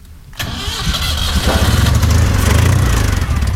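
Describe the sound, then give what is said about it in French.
A battered old doorless Citroën 2CV, fitted with a 2CV6 engine and a short 2CV4 gearbox, cranks and catches after a short quiet start, then settles into a loud, rough, throbbing idle with a steady low pulsing rhythm. “Je monte à côté de mon père dans cette vieille deux chevaux déglinguée, sans porte et sans contrôle technique.”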